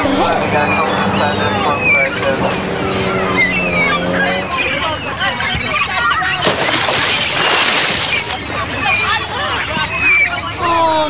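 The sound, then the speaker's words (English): A jet ski's buzzing engine drones over the water at a beach, loud at first and then fading out, with a crowd of people chattering throughout and a wash of wind and water noise. “Wait, what, what's that noise? What's that? That looks like a, a jet ski coming”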